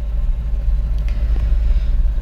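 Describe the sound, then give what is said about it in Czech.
The engine of a Babetta moped, apparently a model 207, kept in a garage, idles with a deep, steady growl, its low rumble loud and continuous throughout, with no voices present. “No, takže ji teď mám v garáži. Eh, vrčí.”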